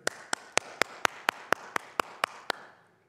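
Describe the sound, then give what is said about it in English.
A quick, steady run of about eleven sharp hand claps, evenly spaced, each crack ringing briefly before the next, then fading into quiet; a person claps at the front gate of a home in Paraguay to get the homeowner's attention in place of a doorbell. “Well, if you're in Paraguay and you want to get the attention of a homeowner, you come to the front gate, the front wall, and there is no doorbell, but you stand there”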